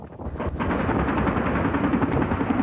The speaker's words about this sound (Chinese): 国军伫屏东操演，陆军航特部直升机锁定目标区了后，发射火箭弹甲连炮。